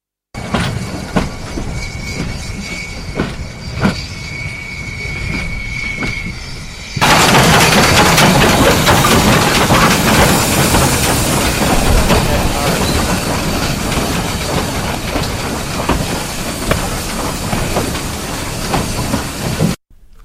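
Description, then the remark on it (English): Train wagons loaded with turf roll along railway tracks at Rathmore railway station in North Cork, Ireland, with a steady rumble and rhythmic clacking, jumping abruptly to a louder, hissing roar partway through and holding there until it cuts off. “Rathmore railway station in North Cork was a busy place during the emergency in Ireland, and cartloads of turf from the bog were carted by the local farmers to the station and loaded on the wagons.”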